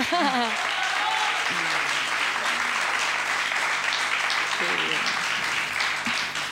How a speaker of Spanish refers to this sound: que tenemos una ganadora en premio Goya y una nominada. Ese aplauso también por eso habrá que hacerlo, ¿no? ¡Olé!